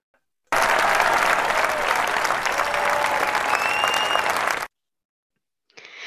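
Loud, steady applause from a crowd fills about four seconds, a dense wash of clapping that stops abruptly, followed by a brief silence and then a voice starting to speak.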